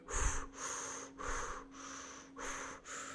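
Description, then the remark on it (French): Someone demonstrates quick, shallow breathing high in the chest, at the very top of the lungs, with the chest and torso moving: three short, airy breaths in a steady, hurried rhythm, with no talking. “si vous analysez comment vous respirez, on est d'accord que votre respiration, elle, est, est, mm, très haute, dans le sens où c'est tout en haut des poumons, quoi.”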